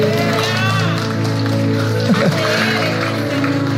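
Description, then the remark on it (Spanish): A crowd claps steadily for a few seconds, the dense applause running under sustained background music, with a few voices and cheers mixed in. “Denle un aplauso a Daniel.”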